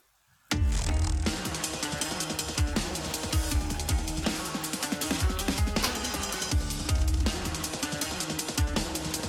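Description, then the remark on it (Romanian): A full, loud music track kicks in after a brief silence, with steady driving drums, dense layered instrumentation and a strong rhythmic pulse throughout, no vocals evident. “Și am avut o reală problemă în a lege un clip care să fie reprezentativ și am dat, nu știu, probabil cea mai, cea mai, cea mai populară piesă de pe ultimul album și”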